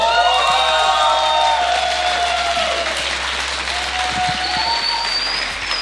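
An audience in the Sala Julián Carrillo applauds a band after their set, loud and steady, with cheers and high whistles rising over the dense clapping throughout, the ovation easing slightly toward the end.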